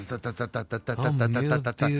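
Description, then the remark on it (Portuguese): A voice imitates a bed shaking violently: a rapid string of rhythmic vocal bursts, then a sustained, wavering voiced rattle. Fairly loud, with no other talk. “Ai, e a cama fazia assim.”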